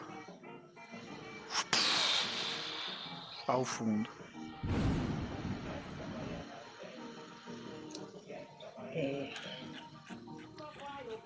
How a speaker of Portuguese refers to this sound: assim que tu fala isso, nós todos escutamos o barulho de um trovão